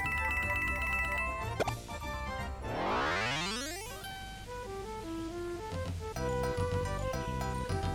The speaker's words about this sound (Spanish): Una vez presiones Enter se te otorgarán 10 monedas y comenzará el juego. Perfecto, entonces vamos a pulsar Enter y van a oír el ruido de las gemas, de las monedas.